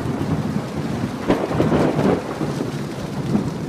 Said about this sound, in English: Roofs in Arizona take a beating. the sun cooks them, the wind pulls at them the rain pounds them.